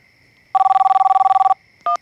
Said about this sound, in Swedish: Det är vår logistiker som ringer och väcker mig.